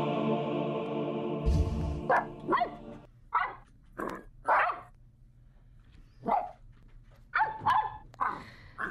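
A dog barks about nine times in short, irregular bursts, some in quick pairs, fairly loud. A steady humming tone fills the first few seconds before the barking starts.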